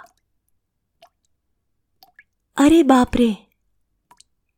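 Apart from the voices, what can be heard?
water dripping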